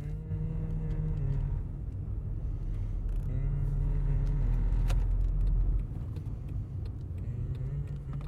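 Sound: car driving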